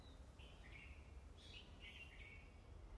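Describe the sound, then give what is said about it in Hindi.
Several small birds chirp and trill outdoors in short bursts, sounding somewhat distant over a steady low rumble of background noise, with no one speaking. “अपने आस के परि आसपास के परिवेश पर अपने ध्यान को केंद्रित करें जो दूर दूर तक आपको सुनाई पड़ता है उसे सुनने का प्रयास करें पंछियों की आवाज़ को सुने हवा की सरसराहट को सुने”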